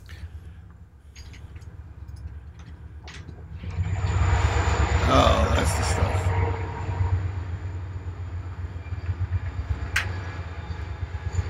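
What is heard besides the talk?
passing train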